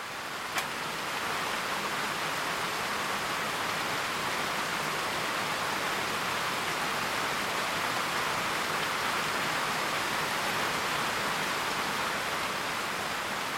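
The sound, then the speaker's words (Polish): Heavy rain pours down in a forest, heard from inside a shelter hut, in a steady, dense hiss that holds evenly for the whole stretch, with one faint tap near the start and no voices. “po prostu byłem uwięziony w czasie ulewy w jakimś szałasie w lesie.”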